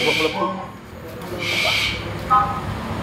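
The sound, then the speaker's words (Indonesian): A bird calls in a few short, tonal notes, including a brief bright call near the end, heard against steady background noise with two rushing, hissy swells. “Yang manuk apa sih panas itu?”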